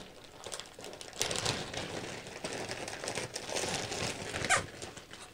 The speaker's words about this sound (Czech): Tohle dělá ty blesky a tu parádu. Normální kuchyňská metlička, no a je tady kus ocelové vlny, kterou vlastně pálíme.